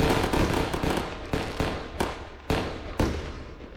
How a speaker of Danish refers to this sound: og så vil jeg gerne lige afspille nogle raketter også.